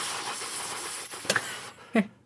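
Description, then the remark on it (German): A voice imitates the scraping, grinding noise of a gaming PC on being switched on, a breathy hiss with a couple of sharp rasping bursts near the end, fairly loud, with no words spoken. “So, äh, ich mache eines samstags mein PC an und plötzlich ähm, schabt das so, so.”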